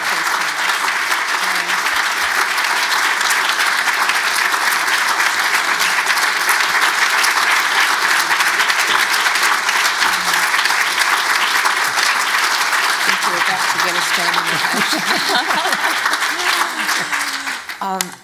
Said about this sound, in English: actually, that's the, the longest applause I've heard in this room, I think. so, um, and I think really you're just um, recognising uh, a very insightful and thought provoking lecture